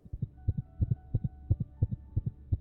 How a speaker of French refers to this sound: Voici ma pièce maîtresse, le cœur. Écoutez comme il bat.